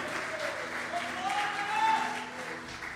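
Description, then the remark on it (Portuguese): An audience applauds the Lord loudly and steadily for about three seconds, a dense wash of clapping with scattered voices calling out over it, swelling briefly before easing slightly. “Pode aplaudir bem forte ao Senhor, é para isso, meu irmão.”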